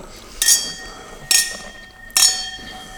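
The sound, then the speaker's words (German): Three bright clinks of wine glasses holding white Chardonnay wine, spaced about a second apart, each a sharp tap that leaves a high, shimmering ring fading slowly over a quiet background. “Weißwein haben wir im Glas. Äh, ich habe noch ein leckeres Chardonnay eingeschenkt.”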